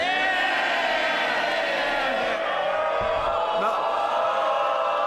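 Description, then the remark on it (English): A loud, sustained roar of many voices cheering and shouting together from the Labour benches in parliament, dense and continuous throughout, with individual cries and whoops rising out of the crowd noise. “A lot of cheering there from the Labour side.”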